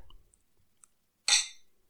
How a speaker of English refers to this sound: Ooh, good clink.